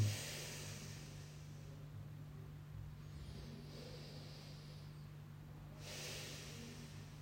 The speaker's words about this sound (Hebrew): אז בוא נשב בו. בוא נשב, בוא ניקח כמה נשימות.